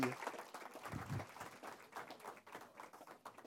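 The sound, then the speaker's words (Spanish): A crowd at a Spanish-language sermon claps steadily in applause for the Lord, dense overlapping handclaps filling the space at moderate volume, with faint voices mixed in beneath the applause. “Podemos darle otro aplauso al Señor Can we give our Lord Jesus another round of applause?”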